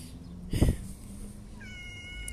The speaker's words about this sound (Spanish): Y por cierto, escucho un gato aquí haciendo miau.